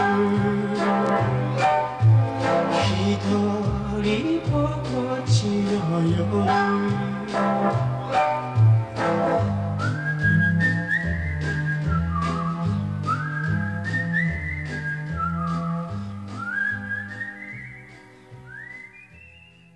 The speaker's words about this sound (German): ein japanischer Hit von 1963 mit einem der schönsten Pfeifsoli, wie ich finde.